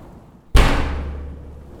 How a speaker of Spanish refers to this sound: Cuando terminó de decir eso, el puntero salió volando de las manos del profesor y se estrelló fuertemente con la puerta del salón.